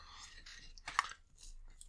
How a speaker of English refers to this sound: I was gonna say if you want to keep chewing while I'm chewing.